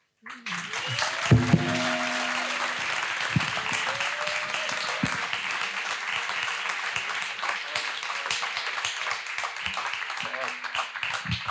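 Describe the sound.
Sustained audience applause, a dense crackle of many hands clapping that starts abruptly and holds steady throughout, with a few brief voiced sounds or cheers near the start.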